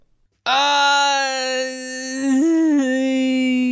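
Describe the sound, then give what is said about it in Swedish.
A man standing soaked in the rain, screaming into the wind, lets out a long, loud anguished howl like a wounded animal, one unbroken wail of about three seconds whose pitch lifts briefly near the end, with no speech around it. “Han ylar likt ett sårat djur.”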